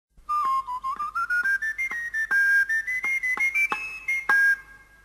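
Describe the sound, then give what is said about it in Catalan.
Sardana music from a Catalan cobla playing La Santa Espina, in the Catalan cobla room of a museum in Northern Catalonia: a single high, piping melody line of short, evenly spaced notes rising in pitch, steady and moderately loud, with no voices. “I, evidentment, sentim la Santa Espina per, per il·lustrar cobla catalana.”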